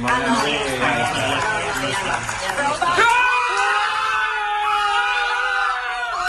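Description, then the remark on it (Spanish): A group of people erupts in loud, excited shouting and cheering on the day of an Oscar nomination, like a crowd celebrating a goal, with one sustained high yell rising above the rest near the end. “Gritasteis como si fuera un gol, la verdad.”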